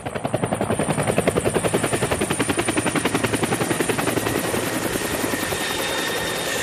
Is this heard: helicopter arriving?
yes